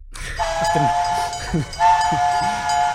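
A train whistle sounds in two long, loud blasts over a steady rumbling and clattering of a moving train, like a short sound effect with no talking.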